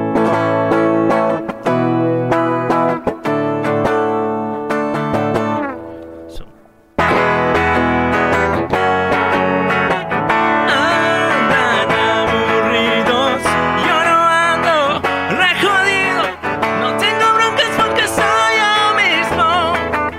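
A loud Les Paul electric guitar plays a solo through heavy distortion, gritty sustained notes and bends, briefly cutting out before returning busier and brighter for the rest.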